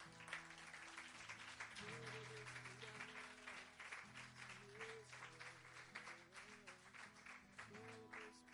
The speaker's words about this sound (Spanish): Podes aplaudir a Jesus?